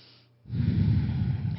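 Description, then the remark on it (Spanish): A deep, steady exhale pushed out through the nose during a guided deep-breathing exercise with eyes closed, a breathy rushing sound that starts after a brief quiet and holds for over a second, fairly loud. “exhalas, todo eso por, la, por las fosas nasales, otra respiración profunda.”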